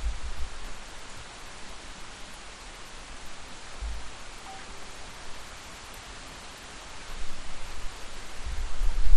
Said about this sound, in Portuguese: Não é possível que vocês não ouçam a chuva. Olha aí.